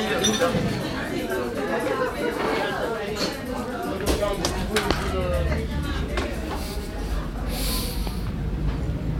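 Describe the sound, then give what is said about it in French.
Busy café interior ambience in the city centre of Nantes: a steady murmur of overlapping chatter with scattered clinks of dishes and cups, plus brief sharp knocks and a hiss of higher noise near the end. “Vous l'avez entendu, euh, je sors à peine euh, d'un café du centre-ville de Nantes.”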